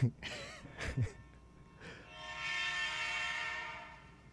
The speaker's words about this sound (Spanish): ¿Ese es el tren de quién? No sé.